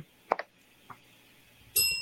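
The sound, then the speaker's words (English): A single bright bell ding, given as a reward for an answer, rings out near the end and keeps ringing, preceded by a few soft clicks and knocks in otherwise quiet surroundings. “I'm going to give you a bell on that answer, and I'm going to tell you why.”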